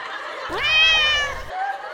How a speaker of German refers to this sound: Hier ist nur eine fette Mieze. Miau.